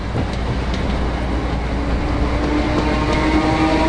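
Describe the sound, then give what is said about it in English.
A train rumbles steadily at a railway station, a loud, continuous low roar with a faint whining tone rising near the end and a few light clanks. No one speaks. “So we went back to the station, and Alec caught his train, and I caught mine”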